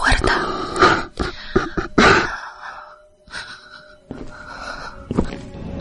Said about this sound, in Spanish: No solo oigo cómo se acerca. Está sollozando.